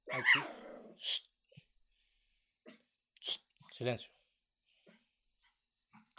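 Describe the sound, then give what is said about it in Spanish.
The speaker's own dog lets out a few sharp barks and low growls in short bursts, with quiet gaps between them, while a person briefly speaks to hush it. “Eh, para los que me están escuchando, ese es mi perro que está jodiendo.”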